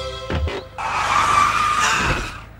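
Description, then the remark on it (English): A car skids loudly to a stop as it is parked, tires screeching for about a second and a half before cutting off, preceded by a brief low engine rumble. No one speaks. “I parked the car.”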